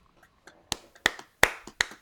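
Several sharp hand claps ring out at an uneven pace, four loud ones with a few softer slaps mixed in, and no one talking.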